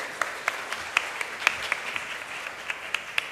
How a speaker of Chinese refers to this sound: 我们用热烈的掌声来谢谢。